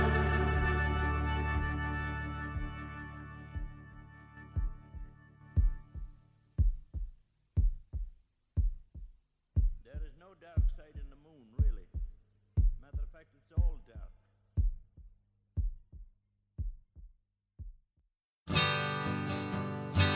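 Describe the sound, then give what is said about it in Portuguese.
On an album track, a lingering musical chord fades into a steady heartbeat, deep regular thumps repeating for several seconds with faint voice-like sounds in the middle, before the music abruptly returns; the heartbeat links the album's first and last songs. “É a batida do coração que vai fazer a ligação entre a primeira e a última música.”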